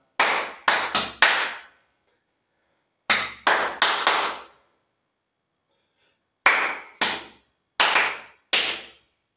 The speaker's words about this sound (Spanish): Voy a hacer una secuencia de palmas y vosotros vais a repetir. La primera es esta.